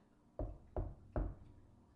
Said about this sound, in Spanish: yo dije, no manches, Que tocan la puerta. Verde, güey. Y además tres veces, ¿no? Que es como la burla, que muchos dicen que es la burla de el chamuco hacia la Trinidad, ¿no?